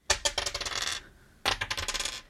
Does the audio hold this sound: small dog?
no